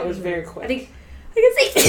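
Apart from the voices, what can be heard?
sneeze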